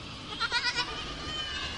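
Several goats bleat in quick, overlapping, wavering cries over a steady background hiss, fading into a low murmur of the herd. No one speaks.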